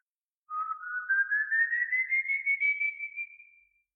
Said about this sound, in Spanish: Eso sí, si escuchas el silbido cerca de ti, puedes estar tranquilo, ya que se encuentra lejos. Pero si lo llegas a escuchar lejos, preocúpate, porque está muy cerca.